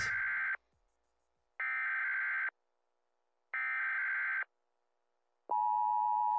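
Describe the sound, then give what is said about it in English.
Three harsh, buzzing electronic bursts separated by short silences, followed by a steady, piercing emergency broadcast test tone that starts and holds. Loud and alone, with no voices. “This is a test of the emergency podcasting system.”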